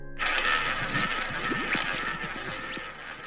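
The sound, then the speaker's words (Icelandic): A roulette wheel sound effect: the wheel spins with a steady whirring rush, and a ball rattles and clicks irregularly across it for a few seconds, fairly loud and without any voices. “Nú erum við rúllettu hljóð og það þýðir að nú hef ég við tímaflag dagsins”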